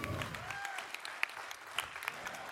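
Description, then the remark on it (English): An audience claps steadily for four preachers, a dense patter of many hands with a few sharper individual claps standing out. “Come on, let's hear it for all four of these preachers.”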